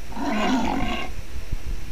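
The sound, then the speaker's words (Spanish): A tiger roars once, a loud, raspy growl lasting about a second, then it cuts off, leaving a quiet background with a couple of soft thumps. “Un tigre.”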